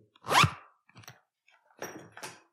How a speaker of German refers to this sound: Ich mach nochmal den Move mit dem Reißverschluss. Moment. Mit dem was? Das hier.